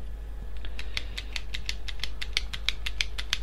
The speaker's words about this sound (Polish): to jest dźwięk ruszającej się z tyłu klapki. Która to klapka jest typowym plastikiem e, i wcale się nie zdziwię, jak kiedyś mi wypadnie.